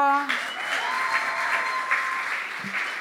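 An audience at the Chiesa Vita Nuova breaks into steady applause to welcome a second preacher, a dense patter of many hands clapping at an even volume for about three seconds, following a brief tonal note at the start.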